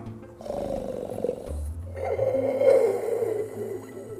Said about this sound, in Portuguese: Você, inclusive, ouve que parece ser um ronco profundo e muito grave.